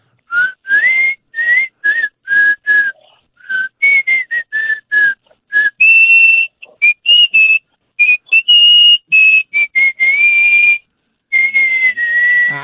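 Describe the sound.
A whistled melody of a ranchera song, a series of clear, pure notes in short phrases that rise and step around, the later notes held longer and higher, with no talking.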